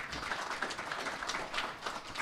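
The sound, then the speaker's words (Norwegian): A crowd applauds steadily, many hands clapping in a dense, continuous patter at moderate volume with no voices standing out. “Applaus der.”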